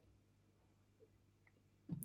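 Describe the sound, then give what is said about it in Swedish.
Quiet, with a faint soft tap partway through, then one short computer mouse click near the end. No one speaks. “Det behöver du inte veta, det klickar.”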